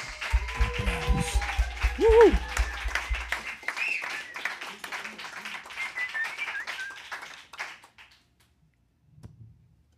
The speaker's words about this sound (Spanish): Damas y caballeros, un aplauso fuerte para un cachito de música de Sonidos Independientes en Fifth Avenue Sounds.